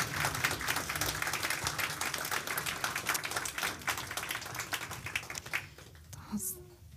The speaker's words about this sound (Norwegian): Velkommen. Gi dem en applaus.